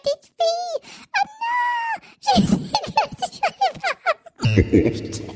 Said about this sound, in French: Moi, je, moi, je me suis éclaté sur un bouton, c'est le bouton. parler comme un monstre qui retient en captivité.